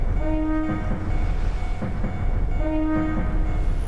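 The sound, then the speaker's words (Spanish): Two short train horn beeps, steady and tonal, separated by a pause of about two seconds, sounding over a continuous loud low rumble of a train coasting at about 42 km/h as it nears its stopping position. “Pitido.”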